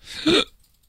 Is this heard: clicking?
no